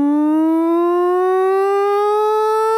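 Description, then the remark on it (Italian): A loud air raid siren wails continuously, its steady tone slowly rising in pitch over a few seconds with no voices or other sounds. “Beh, intanto bisogna dire che le sirene fanno adesso nino nino, perché prima tendenzialmente facevano il rumore delle sirene, quelle dell'antiaerea, quella così.”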